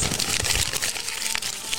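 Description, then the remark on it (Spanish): Continuous crinkling and crumpling of a sheet of newspaper to make it soft, dense crackly rustles with a few sharper snaps, steady and fairly loud throughout with no voices. “Hay que arrugarlo bien, que quede bien blandito, porque si no...”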